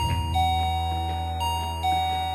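doorbell ringing

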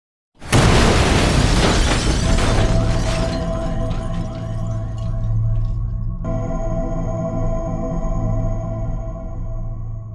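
car bomb explosion

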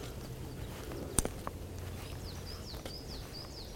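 great spotted woodpecker

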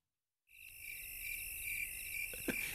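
crickets chirping outdoors

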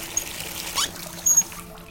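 water running

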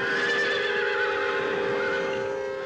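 horse neighing

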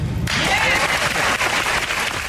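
studio audience applause

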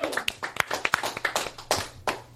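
audience applause

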